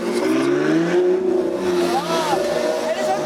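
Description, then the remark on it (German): A powerful car engine revs loudly, its pitch climbing and falling as it drives past in Munich, with voices faintly mixed in beneath the roar. “Warum fahren alle so fette Autos?”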